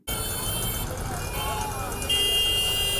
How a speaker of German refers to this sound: In den meisten indischen Städten hat es sich durchgesetzt, dass man ständig hupt. Aber warum machen Autos eigentlich solche nervigen Geräusche, wenn die FahrerInnen mal wieder ungeduldig werden?